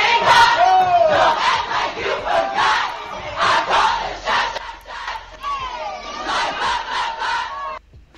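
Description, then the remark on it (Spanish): A large crowd in a video sings along to a song together loudly, many voices blending into a dense, energetic roar, with a brief dip in the middle before the group vocals surge back. “la banda cantando …”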